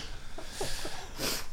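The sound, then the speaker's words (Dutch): A single quick sneeze, a sharp, hissy burst of air after a brief catch of breath, fairly soft and with no one talking over it. “Gezondheid. Gezondheid.”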